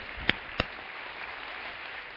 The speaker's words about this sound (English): Let's give the Lord a round of applause this morning.